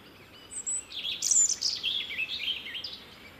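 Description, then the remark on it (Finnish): A European robin sings in spring, a run of thin, high, warbling phrases with quick pitch jumps, clear over a soft background hiss, no voices present. “Tässä yksi kevään merkeistä punarinta.”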